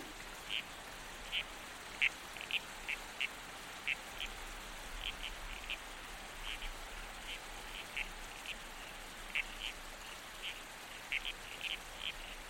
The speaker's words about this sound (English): You are a regal species of frog, with a distinct red stripe on your back, brightly contrasted against your black and brown speckled body. The male toadlet is croaking to attract female attention.